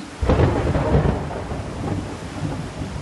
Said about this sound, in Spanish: Qué manera de llover.